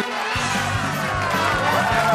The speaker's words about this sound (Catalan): El públic comença a disfrutar, la gent comença a aplaudir